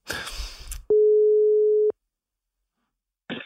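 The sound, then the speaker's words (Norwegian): A phone line's ringing tone for a call to England sounds once, a steady one-second beep at medium loudness, followed by silence; brief rustling noise comes just before it and again at the very end. “så skal vi ringe”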